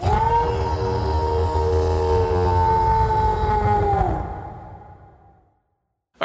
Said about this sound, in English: As suddenly you, you step out of your, your tent and you let out a mighty howl to the moon.